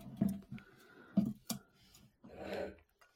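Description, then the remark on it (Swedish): Ice cubes clink in a glass with a few sharp knocks, then a brief rattling swirl as they shift and settle. No one speaks. “Man hör, man hör också, om du var eh, uppmärksam, att jag har lite bättre is den här veckan.”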